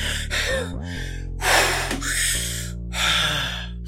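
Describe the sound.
A voice imitates the heavy, ragged panting of someone who has slammed into a wall and slid down, trying to catch their breath: a series of loud, breathy gasps, in and out, with no talking, over a steady low drone underneath.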